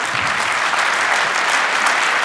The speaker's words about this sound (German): Ähm, ich bedanke mich und wir bitte einen warmen Applaus